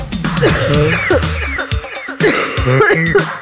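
A woman coughs repeatedly at close range, loud, throaty bursts with voiced, strained edges, pausing briefly before another fit of coughing near the end.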